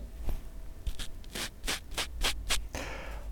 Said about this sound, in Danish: Jeg har koblet en af de her mikrofoner forløbigt til øh, og sat altså selve mikrofonen i skjorten. Der er en lille vindhætte på, som man kan høre.